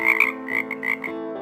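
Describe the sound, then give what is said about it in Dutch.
A frog croaks several times in quick succession, a throaty, buzzing call, fairly loud with no talking, trailing off into a steady hum at the end. “En hij kon geen woeste kreten meer slaken, niet schelden, niet vloeken, alleen nog maar kwaken.”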